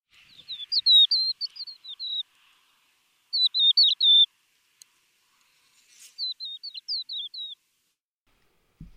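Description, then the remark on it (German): A crested lark sings three short bursts of fluty, warbling whistles with brief pauses between them, clear, with no other sounds around. “Hören wir uns doch ganz kurz die Stimme der Haubenlerche an.”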